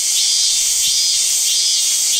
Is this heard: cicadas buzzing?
yes